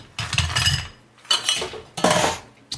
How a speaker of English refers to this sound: So for stirred drinks, just going to drop a little bit of ice in the mixing glass